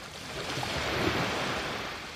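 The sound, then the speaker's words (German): Steady ocean surf rolls in with a broad, hissing wash of waves breaking on a beach, fairly loud, swelling slightly midway with no voices present. “Im Ozean lagert sich der Sand am Grund ab und wird an den Strand gespült.”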